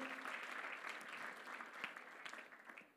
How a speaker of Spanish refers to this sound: Dale un fuerte aplauso al Señor, bien fuerte.